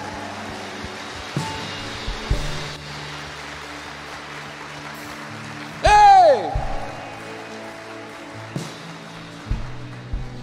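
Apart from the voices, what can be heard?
audience applauding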